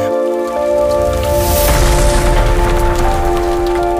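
A loud, steady hailstorm pelts down in a dense, continuous patter, with a deep rumble of thunder swelling underneath midway through. No one speaks.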